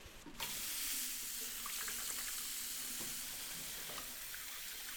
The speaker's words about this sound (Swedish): Och då är det bara ansiktet som sticker fram och händerna, och händerna. som ska tvättas. Precis, så nu tvättar vi händerna.